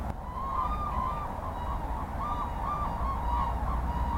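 Repeated honking, trumpeting calls of grey cranes ring out over a steady low rumble, several bugling notes overlapping in an uneven chorus, with no talking.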